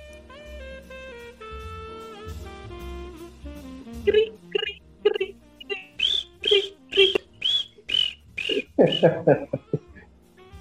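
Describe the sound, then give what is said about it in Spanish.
After a few seconds of softer sustained tones, someone imitates crickets chirping in response to a joke that wasn't understood. It is a fairly loud string of about ten short, high-pitched chirps in a steady rhythm. “Por eso sonamos los grillos.”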